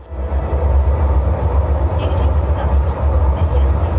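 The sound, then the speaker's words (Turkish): A steady low rumble of a moving train on the Yenikapı–Kirazlı metro line in Istanbul fills the scene, with a dense murmur of many voices mixed into the constant noise of a packed carriage, most passengers standing side by side. “Son durum buydu İstanbul Yeni Kapı Kirazlı metro hattında.”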